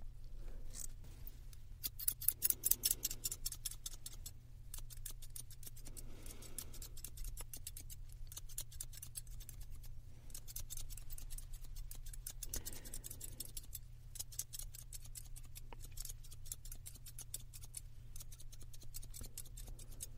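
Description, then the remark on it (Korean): Hand scissors snip through a customer's dyed, damaged hair during a haircut in quick, repeated bursts of crisp metallic clicks, with short pauses between runs over a low steady hum. No one speaks. “이렇게 아까 숟가위로 정리를 하면서 이제 고객님이 염색도 많이 하셨다고 했잖아요.”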